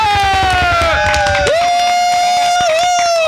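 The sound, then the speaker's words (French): A crowd cheers and makes noise at the end of a band's performance broadcast on Radio Delta, beneath a loud, sustained shrill tone that briefly dips in pitch twice, with scattered claps and shouts in the background. “Écoutez, merci à tous, passez une bonne soirée, passez un bon week-end et on va tous faire un maximum de bruit pour juste les accompagner dans cette fin.”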